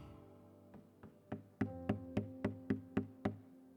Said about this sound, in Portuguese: A Bíblia está nos dizendo: Eis que eu estou à porta e bato.